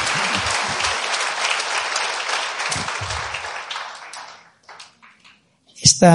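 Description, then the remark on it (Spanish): A church audience in Madrid claps steadily in a dense, sustained burst for about four seconds, applauding those who came to accompany them; then the applause thins into a few scattered claps and fades before a voice begins speaking. “Dale un fuerte aplauso a los que han venido a acompañarnos.”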